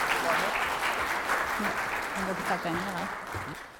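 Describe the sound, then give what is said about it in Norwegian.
Steady audience applause, a dense wash of many hands clapping that holds for a few seconds, with a man's voice talking faintly under it partway through. “Jeg syns vi skal klappe for de som tør å gjøre det her.”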